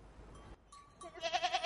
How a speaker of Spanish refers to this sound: Uh, armónico, mira, una cabra o una oveja.